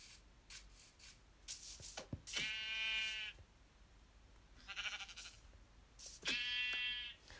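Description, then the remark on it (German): Two drawn-out, wavering sheep bleats from a video game, in which the player is looking for sheep to get wool for beds, separated by a few seconds, with soft rustling and brief snipping sounds in between; no talking. “Da oben ist noch ein Schaf.”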